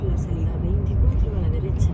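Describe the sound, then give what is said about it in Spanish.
A steady, low rumble of road and engine noise fills the cabin of a moving car throughout, with a faint voice murmuring over the drone. “en mi caso, pues como voy en el coche ahora, pues lo tengo que decir en memoria”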